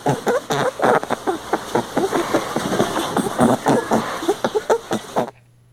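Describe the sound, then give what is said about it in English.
Busy rustling and scuffling as a rabbit wallows and rolls around in a bed, with irregular bursts of movement that continue steadily and then stop abruptly. “It was a rabbit wallowing Ooh. around in a bed.”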